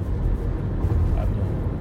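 Steady low rumble of road noise from inside a moving car as the driver records while travelling, a constant dull drone with no clear voices, filling the whole short stretch at an even level.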